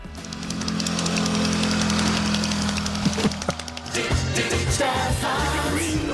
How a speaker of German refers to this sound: Wie, wie das aussah, als der Typ nackt auf dem Roller saß? Nein, wie das klang bei Tempo 50.